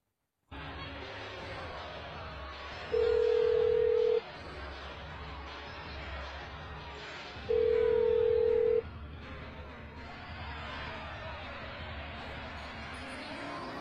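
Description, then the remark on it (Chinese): A phone call rings out unanswered: two long, steady mid-pitched ringback beeps, several seconds apart, sounding over a constant murmur of crowd noise. “电话也不接。”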